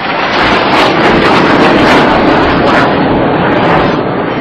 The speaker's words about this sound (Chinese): 你现在听到的这个声音呀，就是飞机轰鸣的声音。